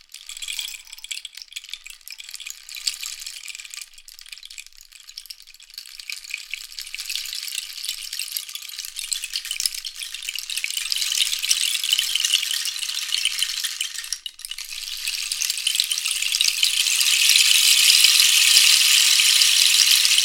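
A rain stick rattles continuously, a dense hiss of tiny pellets cascading like falling rain, swelling louder toward the end with one brief pause midway, without any talking.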